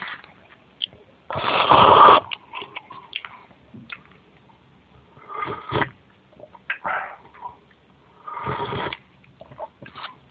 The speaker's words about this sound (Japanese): これが美味しくてですね、ちょっと、えー、直接 iBook のマイクでやっておりますので、ちょっと音が聞こえにくいと思いますが、ちょっと近づけて食べてみます。いただきます。